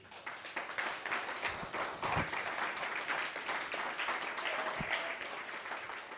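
loud applause

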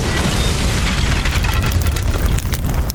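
car bomb explosion

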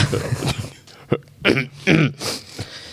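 throat clearing

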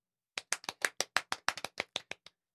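hand clapping

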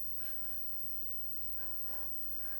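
heavy breathing

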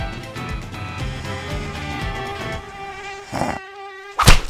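mosquito buzzing

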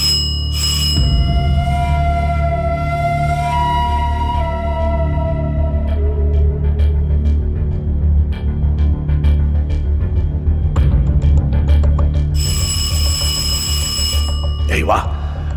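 doorbell ringing

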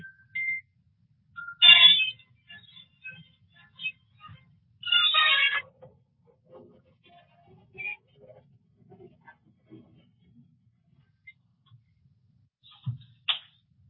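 telephone ringing

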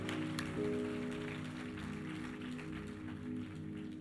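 loud applause

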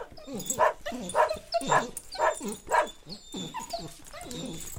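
small dog barking excitedly

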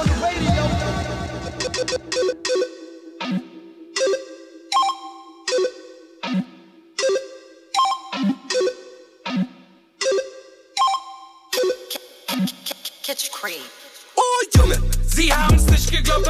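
rap song played

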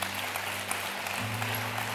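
audience applauding

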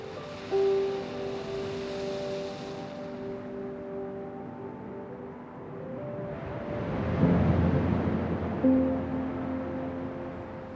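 sea waves

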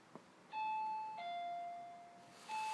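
doorbell ringing

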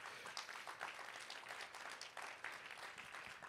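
audience applauding

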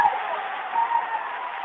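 basketball crowd cheering

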